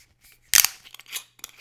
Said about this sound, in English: Okay, let's crack the bottle open. Here we go.